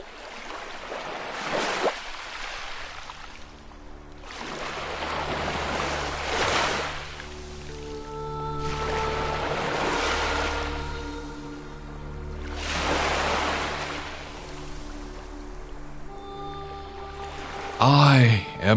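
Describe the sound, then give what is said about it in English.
Ocean surf rolls in over and over, each wave swelling into a broad hissing crash every few seconds, with steady sustained musical tones humming underneath. “the ocean. I'm water. I'm most of this planet.”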